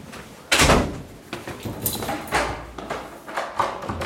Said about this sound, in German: Hinter dem Polizeigebäude ist das Haus der Freiwilligen Feuerwehr und des Deutschen Roten Kreuzes. Der Mann von der Feuerwehr schließt uns die Tür auf zum Gruppenraum des DRK.